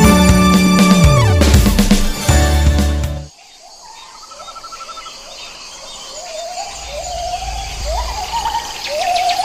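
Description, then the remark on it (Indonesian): A loud burst of music ends abruptly, then a crow caws repeatedly in a steady series of short, harsh calls over faint outdoor ambience, fairly loud. “Aku adalah burung gagak. Makananku daging bangkai hewan lain. Bulu dan paruhku berwarna hitam. Suaraku berkuak, membuat merinding siapapun yang mendengarkannya.”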